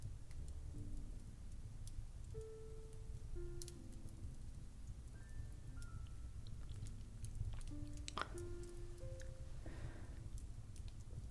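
A fireplace fire burns steadily, with irregular snaps and pops scattered over a low, soft rumble, fairly quiet, alongside a few faint sustained tones in the background.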